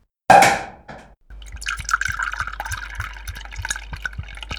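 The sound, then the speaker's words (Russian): A sharp burst opens, then a steady fizzing pour of champagne into a glass runs to the end, fairly loud, with small bubbly crackles throughout. “поднимем за это бокальчик шампанского.”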